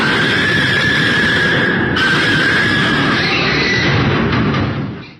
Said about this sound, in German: Und die Sekunden, die werden einem dann ganz schön lang, wenn man dem Schwein dabei zusehen muss, wie das versucht zu fliehen, wie die schreien.